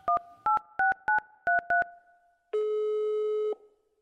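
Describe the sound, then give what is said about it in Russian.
Six quick keypad dialing beeps in a brisk rhythm while placing a call to a folklorist, then a pause and one long, steady telephone ringback tone lasting about a second, clear, with no voices. “Но сначала хочется позвонить какому-нибудь ученому.”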